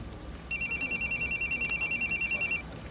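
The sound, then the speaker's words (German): A telephone rings with a rapid, evenly pulsing high-pitched electronic trill, about two seconds of fast repeated bursts over a faint low background hum, with no voices. “Ich lasse einfach die Mailbox rangehen.”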